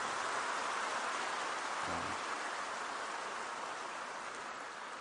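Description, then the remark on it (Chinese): An audience at a talk in Malaysia claps in a steady, dense wash of applause that fills the whole stretch at an even loudness, with no voices over it. “如果这鼓掌声很大，我就会考虑下次要不要来马来西亚。”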